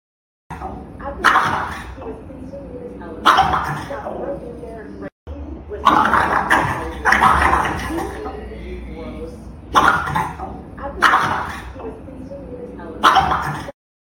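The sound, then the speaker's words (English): A French bulldog in Australia barks in short, sharp bursts while its owners watch a show, repeating roughly every couple of seconds with brief pauses between, fairly loud. “they have a French they. bulldog that she was they were watching the, our show oh, and the right, bulldog Uh, was going nuts”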